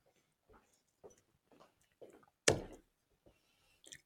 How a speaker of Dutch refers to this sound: Even een slokje appelsap meer.